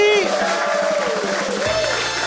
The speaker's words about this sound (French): Mike Ward sous écoute, là tout le monde a fait on applaudit